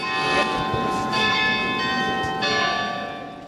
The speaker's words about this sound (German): Das wunderschöne Glockenspiel im Hintergrund, das ist die Nikolaikirche. Das hört man nur dreimal am Tag, immer um fünf nach neun, fünf nach zwölf und fünf nach sechs.